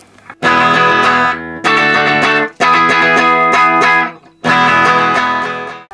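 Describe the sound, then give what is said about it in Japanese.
A distorted electric guitar plays four loud, sustained chord blasts separated by brief gaps, the crunchy overdriven tone rich in harmonics, with no voices. “きめ細かいねなんか繊細な感じがするなんかヴィンテージに近いんですかね割と音的にも枯れた感じも若干しますもんね”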